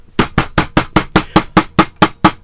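A rapid, steady series of about a dozen loud, sharp slaps of a hand on a table, evenly spaced like urgent pounding, with no voices.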